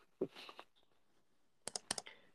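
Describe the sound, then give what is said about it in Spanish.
Soft clicks as a person sits down at a computer: a short cluster at first, then a quick run of four sharp taps after a pause. Quiet, with no voices. “Si escuchan unos clics extraños porque estoy sentándome en la computadora ya que acabo de encontrar un exchange descentralizado que es multicadenas.”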